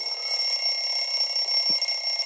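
An alarm clock rings steadily and loudly, a continuous high-pitched electronic tone with a slight pulsing texture, sounding on its own without any talking.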